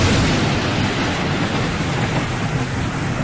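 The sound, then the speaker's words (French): A continuous, loud roll of thunder rumbles low and heavy under a steady hiss like pouring rain, holding a fairly even level for a few seconds with no voices. “On risquerait d'avoir peut-être euh, de gros orages, du tonnerre et donc euh, de la foudre.”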